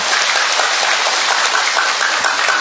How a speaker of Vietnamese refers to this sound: chúng ta một tràng pháo tay thật lớn thưa anh chị em